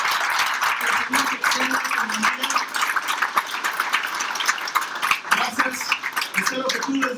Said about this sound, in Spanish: Quiero darte gracias por estar aquí en domingo de carnaval y haber preferido esto a lo que sea que tenías que hacer hoy. Yo creo que eso merece un aplauso.